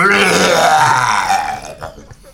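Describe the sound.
A voice imitates a bear's fart with a loud, drawn-out raspy blast that starts strong and sputters out over about two seconds, sounding almost like a long burp.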